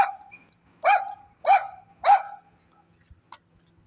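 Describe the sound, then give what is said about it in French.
Three sharp, evenly spaced, loud dog barks ring out in quick succession, followed by a faint short yip, with otherwise quiet surroundings. “Ouais, ça sonnait vraiment euh, du wouf wouf de chant.”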